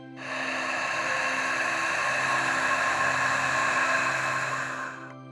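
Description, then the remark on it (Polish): A single long ujjayi exhale through a narrowed throat: a steady, raspy hiss lasting about five seconds, even, easing in and tapering off at the end, with no talking. “Na początku może to być odrobinę wymagające, ale postaraj się maksymalnie skoncentrować na swoim gardle, delikatnie zwężając je podczas wdechu i wydechu.”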